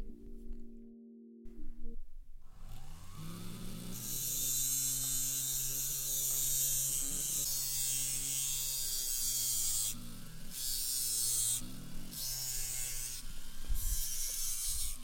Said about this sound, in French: j'ai employé euh, une petite fraise sur laquelle j'ai posé du papier émeri afin de pouvoir nettoyer l'excès de soudure. Et je l'ai mise dans un embout qu'on appelle la pièce à main, qui est alimentée pour qu'elle puisse tourner par le moteur suspendu